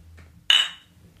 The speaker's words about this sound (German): Komm, lass uns mal, lass uns mal eben kurz ein Bier Erstmal anstoßen.